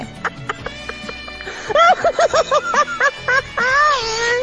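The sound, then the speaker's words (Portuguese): A turkey gobbles loudly, a rapid burst of warbling, bubbling notes followed by a longer drawn-out call, after a brief stretch of quieter background sound. “Tchau, peru!”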